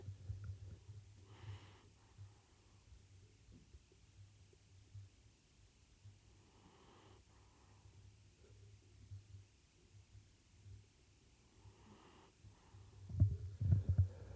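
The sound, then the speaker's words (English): A small dog breathes softly and slowly right up against the microphone, a few snuffly breaths spaced several seconds apart over a low rumble, ending in a louder, huffing burst. “That was the little one breathing.”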